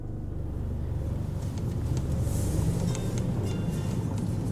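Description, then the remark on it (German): Steady low rumble of a car interior while driving through Munich on a mild autumn evening, engine and road noise filling the low end, with faint higher ticks and hiss from passing city traffic outside. “An einem milden Herbstabend sind wir mit dem Auto in München unterwegs.”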